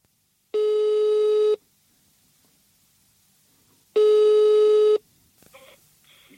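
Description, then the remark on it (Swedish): Two long, steady electronic ringback tones, each about a second, separated by a few seconds of quiet, as heard over a phone line while a man calls a bicycle shop; faint clicks and rustling follow the second tone. “det blev lite märkligt när, eh, när en kille ringde dit för att få hjälp med att täta sin trasiga Barbara”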